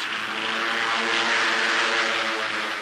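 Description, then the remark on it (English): Propeller fighter planes of the new American Air Force in China roar aloft to seek the enemy, with General Chennault at the controls, in a loud, steady drone, their engines giving a throbbing harmonic hum under a broad rushing noise that holds constant throughout, with no voices. “Roaring aloft, they seek the enemy, their flying general still at the controls.”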